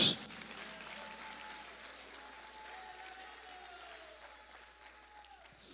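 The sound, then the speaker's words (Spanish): An audience claps steadily for several seconds in worship of Christ, a dense, even wash of applause that stays fairly soft, with a faint sustained keyboard tone running underneath. “Y cuando nosotros entendemos que Cristo es más sublime que los cielos, mucho más sublime, y que Él es Dios, entonces lo adoramos de buena gana, le damos gloria, le damos aplauso, le damos magnificencia, lo, lo amos, lo magnificamos.”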